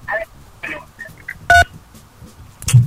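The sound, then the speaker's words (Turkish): Short electronic keypad beeps as a caller presses telephone keys during a call, a couple of brief dual-tone presses with a louder one in the middle, over faint background chatter and line noise. “Basma oğlum tuşa.”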